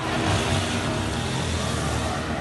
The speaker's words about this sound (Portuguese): Em Americanópolis, também na Zona Sul, os jovens sem capacete aceleram a moto na frente da polícia na saída do pancadão